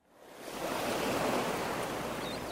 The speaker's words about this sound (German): Es könnte ja so herrlich hier sein. 30 Grad, die Sonne scheint, am Kiosk gibt es Eistee und gekühlte Melonen und das Meer lockt mit sanften Wellen.